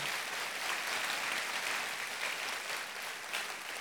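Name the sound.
warm audience applause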